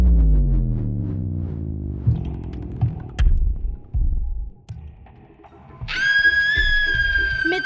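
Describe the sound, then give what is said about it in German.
A low, throbbing drone with scattered thumps gives way to a sudden shrill scream as someone startles awake from sleep, high-pitched, piercing and sustained through the final seconds. “einem schrillen Schrei schreckte Arabella aus dem Schlaf.”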